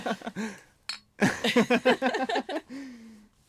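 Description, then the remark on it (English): One bright, short clink of two empty glass beer bottles tapped together in a toast, surrounded by lively voices and laughter. “man, we didn't get any glasses. Oh, we need an, yeah, the uh, oh, we do have two empty beer bottles.”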